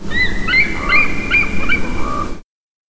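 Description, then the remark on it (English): An eagle calls in a rapid series of thin, high, squeaky piping notes, about five bursts in a row, fairly loud, before cutting off abruptly. “Movies and television seem to always use another creepier looking species as a stand in, much like how they tend to use hawk sounds for eagles, probably because eagle sounds aren't nearly as appealing.”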